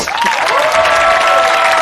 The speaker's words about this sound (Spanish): Un aplauso para JJ Vaquero.